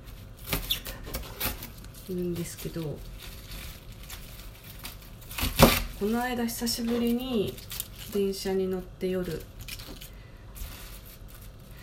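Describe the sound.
A knife chops napa cabbage in short, irregular taps that crunch against a cutting board, continuing beneath a woman's steady speech, with a few sharper, louder strikes mixed in.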